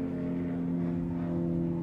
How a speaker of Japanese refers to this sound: 飛行機の音が入ってますね時々あのネイビーの飛行機が通るんです海軍の海からそんなに遠くないとこに住んでるので